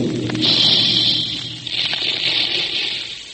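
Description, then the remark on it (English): A big Quaker cereal puffing gun fires while making puffed wheat and puffed rice, with a loud, sustained hissing blast, a rushing roar of steam over a low rumble that dips briefly, then surges again for a few seconds. No one speaks. “That's the sound you hear when the big Quaker guns are making puffed wheat and puffed rice.”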